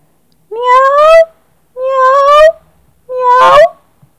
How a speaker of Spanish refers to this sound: maulló el gato enérgicamente.